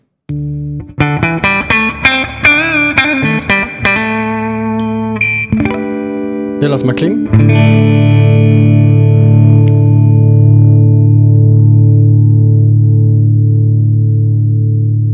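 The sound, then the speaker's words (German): An electric guitar played through a compressor pedal plays a quick run of picked notes, then strikes a full chord that rings out and sustains steadily to the end. A voice briefly speaks early on. “Vielleicht mal aus, dass wir mal wissen, wie es mit dem Kompressor klingt.”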